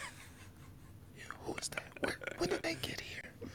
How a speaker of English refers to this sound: You like whispering, you don't want them to hear you.